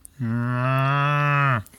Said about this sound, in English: but before before she can make her escape, all of a sudden there's a cow at the door. there is.